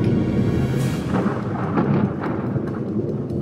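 An electrical thunderstorm on a sunny Saturday afternoon rumbles low and steadily, with several sharp crackling lightning strikes bursting through at irregular intervals. Loud, with no voices.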